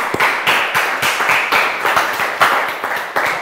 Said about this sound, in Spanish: Amén. Dele un aplauso en casa, por favor, y acá.